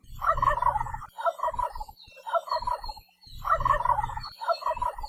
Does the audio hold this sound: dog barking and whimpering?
no